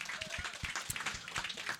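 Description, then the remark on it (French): A brief burst of applause from a small group for Éric Laforce, dense overlapping hand claps at a moderate, steady level, with no clear talking over it. “Là-dessus, mesdames et messieurs, s'il vous plaît, une bonne main d'applaudissement pour euh, Éric Laforce.”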